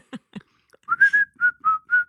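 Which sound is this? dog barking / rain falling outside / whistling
whistling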